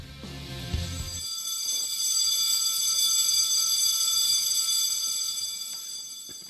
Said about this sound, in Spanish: ¿Timbre? timbre.